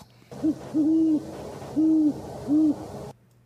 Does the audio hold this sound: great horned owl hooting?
yes